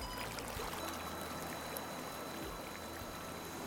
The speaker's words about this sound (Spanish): Sí, por lo noto que es lo que suena es por la cascada que tenemos ahorita que vamos a ir a ver.